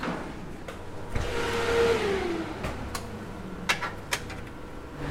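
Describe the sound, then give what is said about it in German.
In a laboratory, the door of a temperature-controlled incubator cabinet that looks like a large refrigerator is opened: a steady mechanical hum, a brief falling whine near the start, and two sharp clicks toward the end like the door latch releasing. No one speaks. “geht in einen Nebenraum und öffnet die Tür eines Schranks, der aussieht wie ein großer Kühlschrank.”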